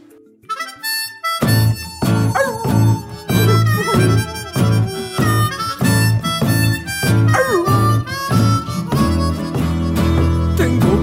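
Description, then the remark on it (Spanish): An upbeat Spanish-language song about being a dog plays loudly as a musical break, after a brief quiet intro, with a steady driving beat, bright melodic instruments and rich harmonic layers filling the whole track. “Vamos a hacer una pequeña pausa musical, vamos a escuchar una canción”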